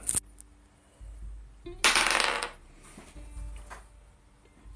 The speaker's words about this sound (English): I rolled a 12 plus my whatever because I don't remember what's going on because I rolled my drug dice earlier.